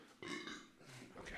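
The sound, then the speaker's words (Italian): A single loud, drawn-out burp, a croaky, gurgling belch lasting over a second with a rough, throaty rasp throughout. “Sicuramente ruttare e scorreggiare non è, non è, la cosa migliore.”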